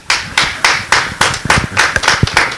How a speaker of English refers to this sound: Somebody give the Lord a great big hand praise.